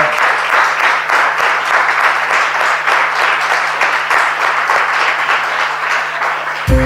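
Sustained applause from a sizeable audience, dense and steady with many hands clapping at once, filling the space for several seconds before cutting off abruptly.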